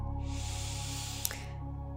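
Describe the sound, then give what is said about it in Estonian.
A single long, deep breath drawn in, an airy rush lasting over a second, with a steady low hum and soft sustained tones underneath. “ja hinga, hinga lihtsalt sügavalt sisse.”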